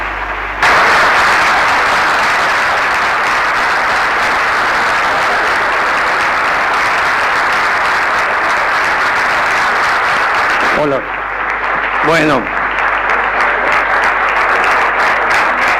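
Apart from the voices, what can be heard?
audience applause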